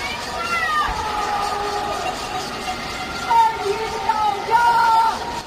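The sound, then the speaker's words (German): Many voices shout and wail together over a steady, echoing din as people call out from the small lit windows of high-rise blocks in Shanghai, China, at dusk in late April, banging pots and pans and crying for food, with occasional louder bursts rising from the crowd. “Sie machen Krach mit ihren Töpfen und Pfannen und schreien nach Essen in der größten und modernsten Metropole Chinas.”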